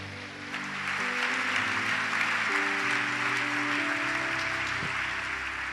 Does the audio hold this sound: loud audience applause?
yes